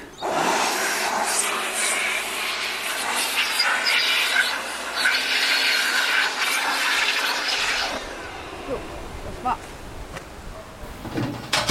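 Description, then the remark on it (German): A small blower roars loudly and steadily for about eight seconds, blowing the last remaining bees out of a beehive, a harsh rushing whoosh, then cuts off, leaving quieter rustling and faint scattered clicks. “Gestern saßen da noch, noch Hunderte oder Tausende drin und die sind jetzt eben über Nacht nach unten umgezogen und die letzten, die jetzt noch drin sind, die puste ich jetzt raus. Jetzt wird es ein bisschen laut.”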